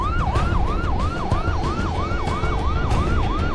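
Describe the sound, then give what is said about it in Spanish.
An ambulance siren on the way to the hospital wails in quick, repeating rising-and-falling sweeps, loud, over a steady low rumble of road traffic. “Alfonso muere en la ambulancia camino al hospital”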